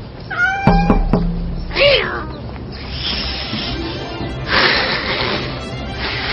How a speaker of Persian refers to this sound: پیشی گربه